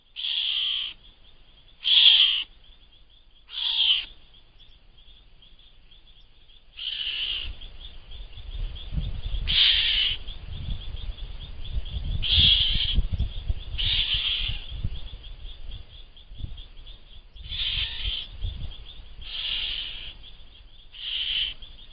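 A Geoffroy's cat (Leopardus geoffroyi, called gato-do-mato grande) calling, about eleven short, high, piercing mews spaced irregularly, with a low rumbling background noise building in after the first few calls.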